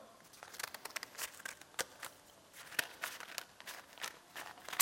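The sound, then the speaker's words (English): Scissors cutting through paper: a run of crisp, irregular snips mixed with papery crinkling and rustling, fairly quiet, with no one speaking. “I tried cutting with a knife, I can't do it, but we've invented scissors since then, so.”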